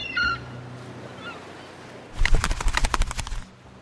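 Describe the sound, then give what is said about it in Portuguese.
A seagull holding a flower necklace in its beak gives a brief high cry, then after a pause breaks into a loud burst of rapid, harsh squawking calls that lasts just over a second before fading out, as it lands on a boat. “Uma gaivota segurando na boca um colar de flores. Ela pousa no barco de vocês.”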